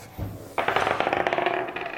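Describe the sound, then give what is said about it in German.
A small die is rolled and clatters across a hard tabletop, a quick burst of rapid clicking bounces that gradually settle, fairly loud with no voices. “Okay, wir brauchen noch einen Würfel.”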